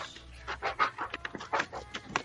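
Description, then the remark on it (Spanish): A dog named Toki scratches at its cushion in quick, uneven bursts of rough fabric scraping, moderately loud, with no one talking over it. “Está rascando su pinche cojín.”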